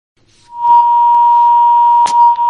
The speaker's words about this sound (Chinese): 这个电话是咋回事儿？ 好， 您不要让它有回回声、啸叫声好吗？